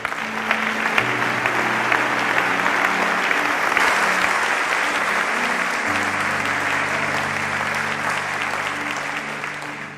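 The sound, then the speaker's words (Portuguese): A church audience applauds the Lord steadily for the full ten seconds, dense and loud clapping, with a sustained low instrumental tone droning underneath and shifting pitch midway. “Alguém pode dar um aplauso ao Senhor nesse lugar?”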